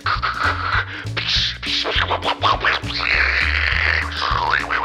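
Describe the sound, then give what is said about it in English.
Loud, harsh static from a TV on a scrambled channel hisses and crackles in choppy bursts, layered over stuttering low buzzy tones that jump from pitch to pitch, running continuously for several seconds. “You are watching the scrambled image static and vertically ripping picture channel.”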